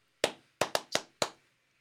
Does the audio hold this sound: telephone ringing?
no